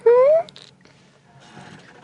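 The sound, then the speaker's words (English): A person gives one short, loud meow in imitation of a cat, a voiced tone that slides upward in pitch, followed by faint rustling and murmuring. “We're each going to do a meow.”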